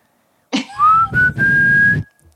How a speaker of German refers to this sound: Und jetzt müssen alle hier pfeifen.